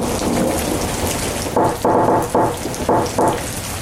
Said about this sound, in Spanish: Una guacerona allá afuera.